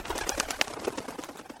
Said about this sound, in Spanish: De pronto se sintió afuera un aleteo de pájaros